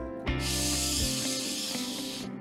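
A steady hiss of a Bom Ar aerosol air freshener spraying continuously for about two seconds at an opened refrigerator, bright and airy, starting with a brief low thump and ending abruptly.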